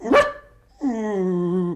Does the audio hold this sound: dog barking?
yes